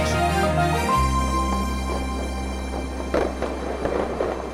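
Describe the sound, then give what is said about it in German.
New Year's Eve fireworks explode in Germany as the new year is welcomed, a steady rumbling din punctuated by several sharper bangs and crackles toward the end, with no one speaking. “Nach zwei Jahren Corona-Beschränkungen und Böllerverbot haben viele Menschen in Deutschland das neue Jahr wieder mit Feuerwerk begrüßt.”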